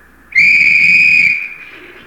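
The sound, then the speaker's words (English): A single loud, steady whistle blast on a white beach where over a thousand skin divers are gathered rings out for about a second, sharp and piercing with strong overtones, then tapers off with some low background rumble underneath. “On that whistle, a thousand snorkels were slurped into place.”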